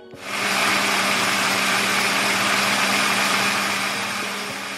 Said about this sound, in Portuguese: Isso mesmo, um liquidificador em ambiente fechado.